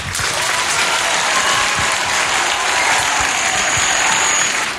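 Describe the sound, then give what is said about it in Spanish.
Big, sustained audience applause in Pamplona for a group's Christmas carol (villancico), filling the whole stretch, a dense steady wash of many hands clapping at an even loudness, with no talking over it. “Me gustaría escuchar el aplauso más grande del mundo hacia vosotros por el pedazo de villancico que os habéis marcado.”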